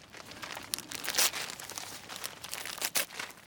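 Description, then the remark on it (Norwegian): Paper crinkles and rustles as wrapping is carefully torn off a parcel taken from a mailbox, with two sharper ripping bursts amid softer continuous crackling. Fairly quiet, with no voices. “Marlon tar pakken opp fra postkassa. Han aner ikke hva det kan være. Han rir forsiktig av papiret.”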